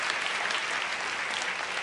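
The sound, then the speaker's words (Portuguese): An audience applauding God during a sermon, a dense, even wash of many hands clapping at once with no pauses, holding a constant level throughout. “Você pode aplaudir a esse Deus que não faz acepção de pessoas,”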